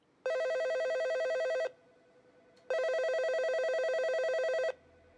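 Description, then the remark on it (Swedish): A telephone rings twice, each long electronic warble lasting over a second with a short pause between, loud with no voices present, as Janelle calls Stacy and Susie early on a Sunday morning around half past seven and gets no answer. “Tidigt på söndagsmorgonen, runt klockan halv åtta, ringer vännen Janelle till Stacy och Susie för att planera det sista inför resan till vattenparken i Branson.”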